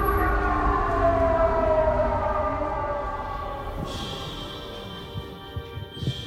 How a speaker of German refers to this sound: Sirene.